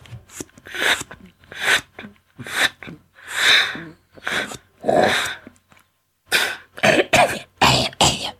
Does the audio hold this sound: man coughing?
yes